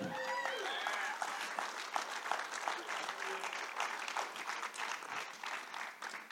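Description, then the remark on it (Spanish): A crowd applauds a storyteller steadily, dense overlapping clapping filling the room at an even level, with a brief voice and whistle-like tones at the very start. “Y muchas gracias por aplaudirme.”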